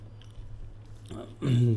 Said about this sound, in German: Wenn ihr jetzt was knuspern und knispern hört, dann ist es ein Chip, den ich gerade reinpfeife.